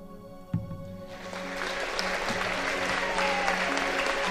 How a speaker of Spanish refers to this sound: Así que estos aplausos eh, valen por, por todos los que nos están escuchando desde ya.